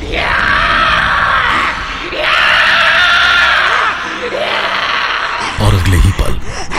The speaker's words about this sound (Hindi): अचानक से वो औरत चिल्लाकर मेरी ओर बढ़ी